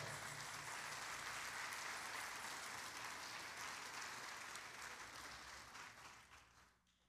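A church audience claps loudly and steadily for the Lord, a dense wash of many hands that holds strong for several seconds before gradually fading out at the end.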